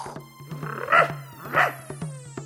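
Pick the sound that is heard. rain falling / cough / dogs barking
dogs barking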